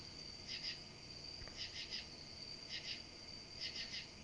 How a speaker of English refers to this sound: That's freaky how the goddamn cricket goes one, two, one, two, three, one, two, one, two, three. like it's like it's almost if they can count.